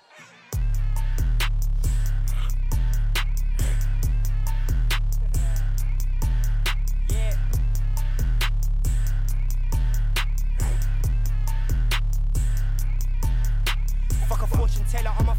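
The latest single by a British grime-style rapper plays loud, driven by a deep, booming bass line and sharp, evenly spaced drum hits that keep a steady, punchy rhythm throughout.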